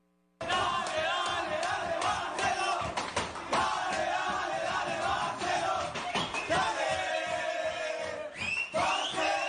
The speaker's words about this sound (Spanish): Bueno, estamos con los festejos también del Barcelona. Escuchemos las, esa alegría